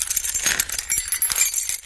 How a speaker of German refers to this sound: Vielsagend rasselt Burgführer Max Lehmacher mit seinem großen glänzenden Schlüsselbund. Denn, was viele nicht wissen, ein Besuch der Marksburg ist im wahrsten Sinne des Wortes ein Schlüsselerlebnis.